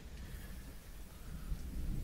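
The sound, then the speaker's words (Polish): A thunderclap rolls out as a deep, steady rumble with a hiss like falling rain over it, sustained for a couple of seconds with no voices. “Grzmot, jaki się rozlega, jest najgłośniejszym grzmotem, jaki kiedykolwiek słyszeliście.”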